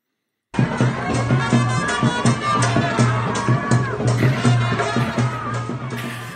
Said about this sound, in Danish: Men det er her, vi starter i den sydøst, eller sydasiatiske østat Sri Lanka lige syd for Indien, hvor vi i baggrunden kan høre en del af befolkningen, der jubler over resultatet af søndagens præsidentvalg.